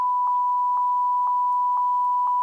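A steady, high-pitched censor bleep tone holds unbroken for about two and a half seconds, with faint soft ticks pulsing through it at an even half-second rhythm. No one speaks.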